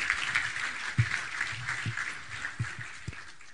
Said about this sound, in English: Well, thank you. Thank you very much. Let's give Brad a round of applause, guys.